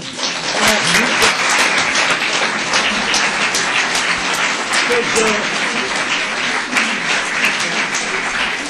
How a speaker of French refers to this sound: Je vous propose d'applaudir fortement.